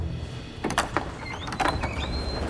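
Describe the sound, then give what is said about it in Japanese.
Theater doors open with a few sharp clacks and latch clunks and a thin upward squeak of hinges, as the audience of a preview screening of Disney's Ratatouille spills out into the lobby, over a low steady background rumble. “劇場のドアが開き観客がロビーにあふれ出てくる”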